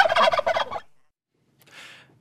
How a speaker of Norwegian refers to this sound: Ja, der hørte du en kalkun.